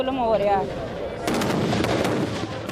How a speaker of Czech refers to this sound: Podívejte se na to, co nám dělá vláda. Střílejí na nás granáty se slzným plynem. Je jim jedno, že zasáhnou staré lidi nebo děti.